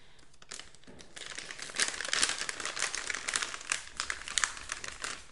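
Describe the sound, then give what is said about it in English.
Steady crinkling and rustling of a plastic treat bag, with sharp crackly bursts as it's handled and rummaged through to toss out treats for several seconds, no voices. “Hold on, I've got to throw some treats.”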